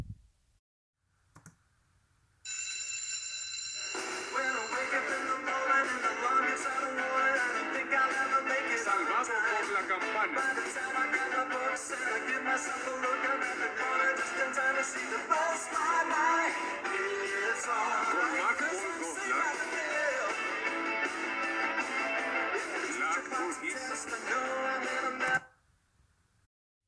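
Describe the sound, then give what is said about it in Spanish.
The intro theme of the TV sitcom Salvados por la Campana (aired 1989 to 1992) plays loud and steady for about twenty seconds, a bright, busy mix of music that starts suddenly after a brief click and cuts off abruptly at the end. “Eh, aquí les va un poco de la intro.”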